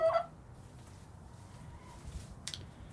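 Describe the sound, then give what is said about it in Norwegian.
A hen in a henhouse lets out a short, sharp squawk right at the start, then only low, muffled background noise with a faint cluck and a brief rustle near the end. “Jeg vet ikke, Hva sier man til høner?”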